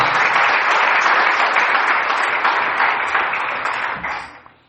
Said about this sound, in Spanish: Denle un aplauso a Cristo esta mañana, por favor.